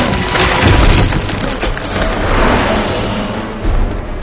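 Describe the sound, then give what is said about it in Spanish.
A sustained, loud crashing and crumbling as mummy soldiers smash through a museum wall, with heavy low booms and splintering debris churning for several seconds. “Las momias soldados salen del museo a través de la pared.”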